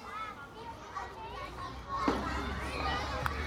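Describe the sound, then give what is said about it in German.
Outdoor playground ambience with many children's voices chattering and calling out, a steady busy murmur broken by a few sharper shouts. “als wir auf dem Spielplatz waren, auf dieser Bank saßen hinter diesen zwei Männern”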